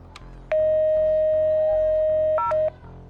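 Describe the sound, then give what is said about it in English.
A man calls his laboratory: a phone receiver clicks, then a steady dial tone hums for about two seconds before a quick pair of keypad beeps. Clear, with no voices. “Instead, he picked up the phone and called his laboratory.”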